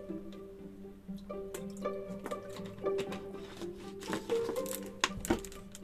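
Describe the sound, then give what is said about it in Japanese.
150 ml of water, bought in India, is poured into a pot in short, uneven splashes and trickles, with some light clinking and a steady faint hum underneath; no one speaks. “ここに 120ml 150ml の水を入れるで今回ね私まだインドで買ってきたお水が残っているのでこれをね使おうかな 150ml のお水”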